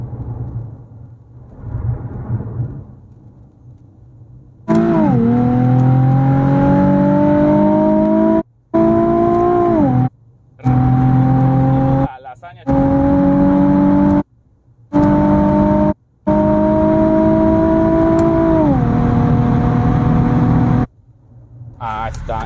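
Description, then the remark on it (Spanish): A six-cylinder 370 engine revs loudly in several long pulls, its droning pitch climbing and dropping again. Quiet idle comes first, and sharp silent breaks cut between the revs. “Ah, escuchan el poder de un 6 cilindros 370.”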